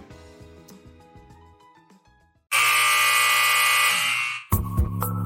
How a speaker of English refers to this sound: The sound of the final buzzer means it's hangover time.